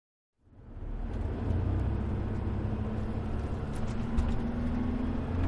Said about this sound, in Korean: 1997년 관광버스에서 어린 내가 자다 깨다 한다. 버스는 고객길을 넘느라 좌로 쏠리고 우로 쏠리며 덜컹대는 중이다.